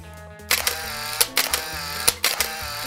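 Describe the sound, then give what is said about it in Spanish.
A DSLR reflex camera's mirror and shutter clicking several times in quick, crisp, fairly loud bursts, with a faint steady tonal background underneath and no talking. “No tenemos que hacer ese, el, el sonido que a mí me fascina.”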